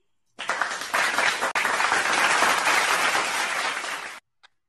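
A burst of applause for a speaker at the CN Summit, an entrepreneurship event on Clubhouse streamed simultaneously on LinkedIn: dense, steady clapping from many hands that holds for about four seconds, with a brief break partway through, then cuts off abruptly.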